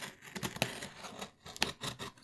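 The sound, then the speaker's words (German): A box cutter slices through a parcel in a series of short, scratchy rasping strokes, with two sharper, louder cuts standing out among the quieter scraping. No one speaks. “Ich habe das Päckchen hier vor mir liegen und mein Cuttermesser schon bereit.”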